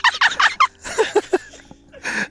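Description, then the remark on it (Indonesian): A voice imitates a farting sound with quick, sputtering, gobble-like bursts, four rapid pulses, then a wetter trailing series, a brief pause and one last buzzy burst, fairly loud. “Jangan itu mulu suaranya Kan kayak berak begitu deh”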